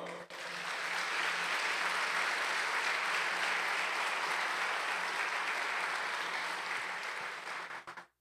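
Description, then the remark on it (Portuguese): An audience at an evening church service applauds for the Lord steadily for about eight seconds, a dense, even wash of many hands clapping at constant loudness before trailing off abruptly at the end. “Você pode aplaudir, Senhor?”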